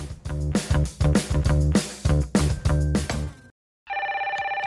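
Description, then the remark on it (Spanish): A telephone starts ringing after a burst of upbeat music and a short silence, its bright, rapidly trilling electronic ring loud, continuing steadily to the end with no voices. “¡Momentito, no cuelguen!”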